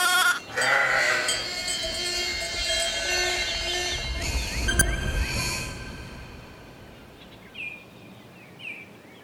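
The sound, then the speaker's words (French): A donkey brays loudly for several seconds, a harsh, strained call with rising and falling pitch, then the noise fades and two short, high squeaks follow near the end. “Les ânes sont des animaux simples et robustes.”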